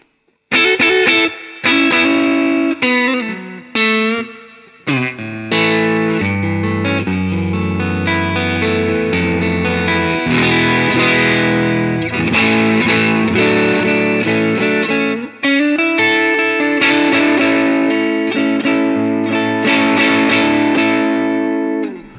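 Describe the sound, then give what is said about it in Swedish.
An electric Telecaster guitar played on its Ellis neck pickup, strummed chords and ringing notes sustaining steadily for about twenty seconds with a few brief pauses, loud and full with a slightly effected, overdriven edge. No talking. “Och sen mellanläget. sen så halsmicken.”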